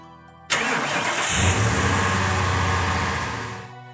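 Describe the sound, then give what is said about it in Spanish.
A car engine cranks and catches with a sudden loud burst, then settles into a steady rumbling idle that slowly fades near the end. No voices. “Encendieron el coche y acostaron a Lilith en los asientos traseros.”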